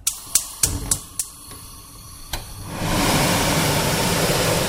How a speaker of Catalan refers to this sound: Així sona la cuina de casa quan s'encenen els fogons i la campana extractora.